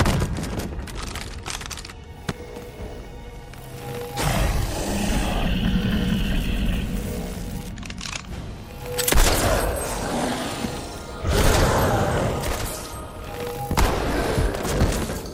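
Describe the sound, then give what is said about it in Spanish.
A chaotic battle soundscape of gunfire and heavy impacts, with dense rumbling noise and several loud booming bursts standing out every few seconds. No speech is heard. “se detuvo cuando Sam recibió un disparo al pecho.”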